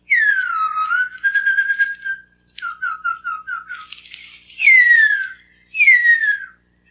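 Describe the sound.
A person whistles a 1949 recreation of the call of the male huia, an extinct bird: a series of clear, fairly high whistled notes, some sliding downward, with short rapid repeated pips in the middle, alone without talk.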